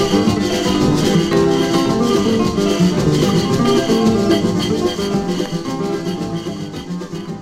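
A viola picked in ponteado style, bright plucked strings playing steady runs inside a full, loud band arrangement that stays dense throughout and eases slightly toward the end.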